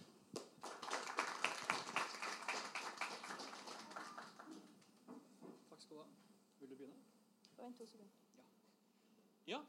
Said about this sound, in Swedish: Da vill jeg bare si, dem en varm applåd.